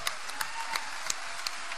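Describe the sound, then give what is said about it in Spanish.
A crowd applauds Uruguayan comedian Germán Medina steadily, a dense wash of clapping with a few sharper claps standing out, with no voices over it. “Fuerte el aplauso.”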